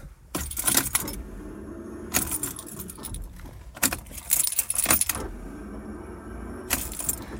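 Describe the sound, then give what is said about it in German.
Keys jangle in several loud, bright bursts over a steady low mechanical whir as a faulty car starter cranks repeatedly without the engine starting. No one speaks. “Das ist das Geräusch meines Anlassers.”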